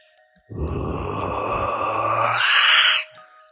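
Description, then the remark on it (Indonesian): A person imitates a low, menacing growl, one sustained rumbling vocal sound lasting about two and a half seconds, rising into a harsher, breathier rasp near the end before stopping abruptly. “E, seketika dia langsung terdiam dan akhirnya mulai menggeram.”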